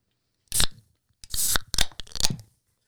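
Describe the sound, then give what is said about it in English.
A drink can is cracked open, giving a sharp snap followed by a few crisp, fizzy bursts of hiss over about two seconds, with no one talking. “When y'all hear that can crack,”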